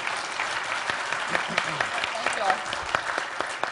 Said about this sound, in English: Um, first, yeah, go ahead and give yourself some applause. That's good.